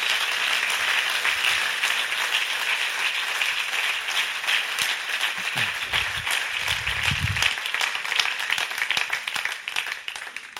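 Sustained audience applause, a dense steady wash of many hands clapping at an even loudness for about ten seconds, with a few faint low murmurs underneath and no clear speech.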